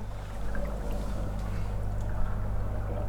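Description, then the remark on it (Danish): Continuous gurgling of water bubbling through sensory bubble tubes in a movement room in Gentofte, layered over a steady low pump hum, moderately loud with no talking. “Og det har nogle boblerør for eksempel. Der er rigtig mange børn, som bliver fascineret af de her bobler.”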